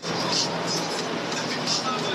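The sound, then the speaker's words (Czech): Steady, echoing ambience of a railway station hall in Most, Czech Republic, in the morning, with a constant wash of background noise, indistinct voices murmuring, and a few brief faint high clinks or squeals. “Ale to je jen hala. U peronů stojí úplně jiné vlaky než včera, i když jeden tady právě postrádají.”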